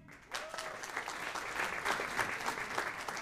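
An audience breaks into applause after a brief quiet moment, a steady wash of many hands clapping at moderate volume that carries on without pause.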